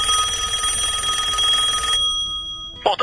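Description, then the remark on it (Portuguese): A telephone rings with a dense, buzzing electronic trill for about two seconds, then cuts off; after a short pause a brief click and the start of another ring follow, clear with no talking, as a call is placed from São Paulo to Rio de Janeiro using the 21 long-distance code. “A gente está ligando aqui de São Paulo pelo 21”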